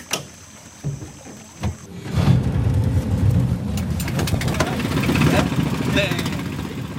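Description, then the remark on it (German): A few knocks and bumps, then the motor of a heavily loaded wooden boat starts about two seconds in and keeps running with a steady, loud rumble as it heads upstream on the Rio Jordan in Acre state, Amazon, with splashing water and high insect-like chirping around it. “startet den Motor und steuert das schwer beladene Holzboot flussaufwärts, durch Windungen und Stromschnellen, an Sandbänken und Treibholz vorbei bis am Ufer die ersten Holzhütten auftauchen.”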